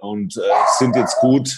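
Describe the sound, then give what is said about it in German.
A dog barks and yips a few times in the background, mixed in with a man talking in the foreground. “Äh, man hört den Hin Hund im Hintergrund.”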